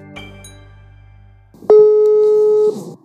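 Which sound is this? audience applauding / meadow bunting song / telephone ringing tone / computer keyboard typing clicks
telephone ringing tone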